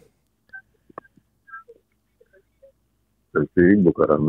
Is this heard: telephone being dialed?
yes